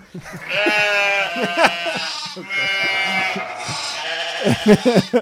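Loud, close sheep bleating: a few long, wavering baas follow one another, with a burst of shorter, shakier bleats near the end.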